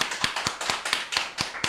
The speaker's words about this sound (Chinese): 来，我们给掌声。